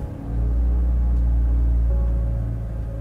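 A car engine is started, catches and settles into a steady, deep idling rumble, fairly loud, with no voices present.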